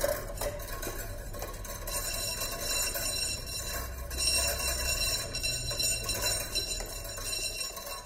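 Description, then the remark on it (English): A wind-driven drawing machine whirs and clinks steadily as the wind turns its main drive wheel, which in turn drives the pen mechanism, making light metallic ticking and scraping over a low rumble of wind, with no one speaking. “And basically when the wind blows, that drives the, the main wheel around and that in turn drives the, uh, the pen mechanism, which is over here.”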